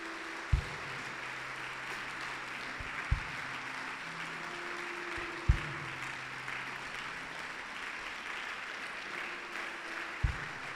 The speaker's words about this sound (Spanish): Honra al Señor con un aplauso así.